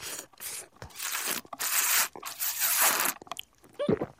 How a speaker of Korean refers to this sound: 아 예. 아 바로 예 아이스 아메리카노 빨대로 먹는 소리였습니다.